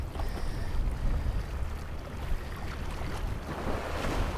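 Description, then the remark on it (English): A boat heading out from a harbour village, its low, steady engine rumble carrying across open water, mixed with lapping waves and gusty wind buffeting the microphone. No one speaks. “boat's just heading out to shore.”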